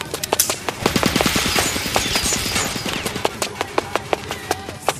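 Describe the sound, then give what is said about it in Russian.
Rapid bursts of automatic gunfire crackle in quick, uneven volleys, dense at first and then thinning into scattered sharp shots, loud with a noisy, roaring background. “Ударив в воздухе ногой, кое-как уворачиваюсь от слишком удачной очереди.”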